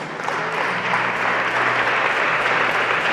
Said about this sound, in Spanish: Aleluya. Aleluya. un aplauso fuerte, Señor, hermanos.